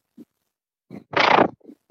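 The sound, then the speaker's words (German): A cat named Willi, held up to a telephone receiver, lets out a loud, harsh cry for about half a second, framed by a few short, softer grunting sounds before and after, with no talking. “Ja, die Katze, also das war schon laut.”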